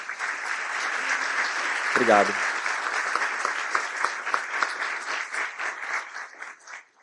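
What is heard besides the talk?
audience applause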